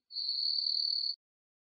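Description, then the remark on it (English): A single sustained high-pitched chirp from a cricket inside a martial arts studio lasts about a second, steady and fairly loud, then cuts off into silence. No voices are heard. “There's a cricket in here.”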